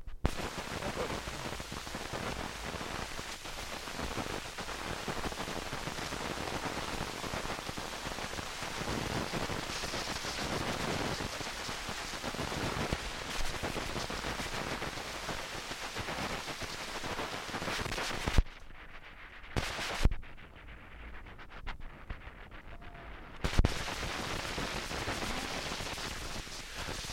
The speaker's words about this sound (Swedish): Ja, eh, utan att ha någon slags eh, informationsbakgrund till det här så skulle man ju kunna säga, eller skulle man kunna tro att det är en eh, noise-skiva av något slag. Eh, och det är ju precis vad det är,